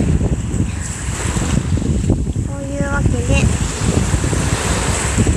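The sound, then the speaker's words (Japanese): Ocean waves wash steadily onto the shore in a loud, continuous roar with some wind rumble, and a person briefly speaks over it partway through. “波の音すき”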